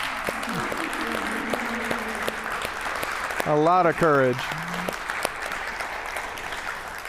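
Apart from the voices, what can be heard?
audience applause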